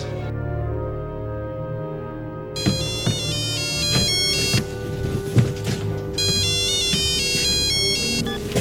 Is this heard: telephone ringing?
yes